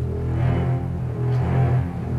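Opening notes of the theme music from the film Jaws (Les dents de la mer): deep, ominous orchestral notes rumble in the low strings, a slow menacing pulse that sounds loud, with no voices over the music.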